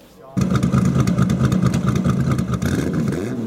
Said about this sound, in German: Plötzlich übertönt ein dröhnender Motor die Tischgespräche. Dann ein zweiter, und noch einer, bis der ganze Platz voll von wundervoll lautem Motorengetöse erfüllt ist. Es ist eine Parade von einzigartigen Ferraris